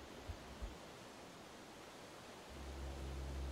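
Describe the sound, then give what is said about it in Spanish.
A steady, broad hiss of distant surf breaking on a sandy shore at night, swelling into a deeper low rumble partway through, with two soft thumps near the start. No one speaks. “El rompimiento de las olas se escuchaba a lo lejos.”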